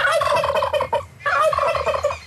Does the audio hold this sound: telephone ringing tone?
no